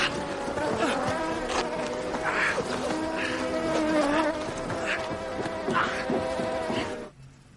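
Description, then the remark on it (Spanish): A dense swarm of wasps buzzing loudly and continuously near beekeepers, stinging a man in a protective suit, the droning hum wavering in pitch for several seconds before cutting off abruptly at the end. “Se aleja de los colmeneros muy alarmado hasta que al recibir varias picaduras acaba abriendo la cremallera del protector de la cabeza.”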